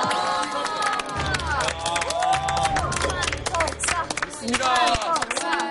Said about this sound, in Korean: 아, 박수! 박수!